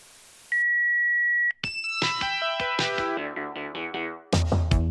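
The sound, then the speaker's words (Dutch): A single steady beep from the Huizen Proper answering machine sounds for about a second, loud and clear, then a quick run of bright descending musical notes follows. “Spreek een bericht in na de piep.”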